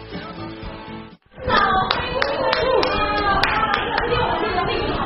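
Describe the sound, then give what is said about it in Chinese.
A brief tonal passage cuts off, then an audience bursts into loud, sustained applause at an event with volleyball coach Lang Ping: dense, steady clapping with murmuring voices mixed in and a few sharp clicks standing out. “大家掌声欢啊！”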